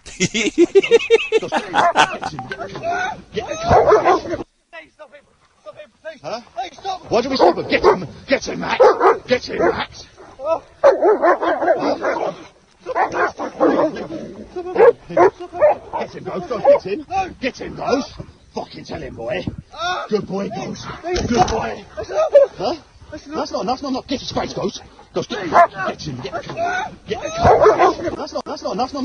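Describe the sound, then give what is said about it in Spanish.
Two dogs bark, yip and whimper in a frantic commotion lasting about half a minute as they attack a man, biting him after he falls to the ground, with his raised voice mixed in and only a brief pause early on. “Pues el, papá llegó en vez de la niña y llevó a sus dos mascotas, dos perros, y así lo recibieron.”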